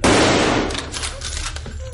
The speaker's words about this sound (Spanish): Michael derriba la puerta y dispara al animal.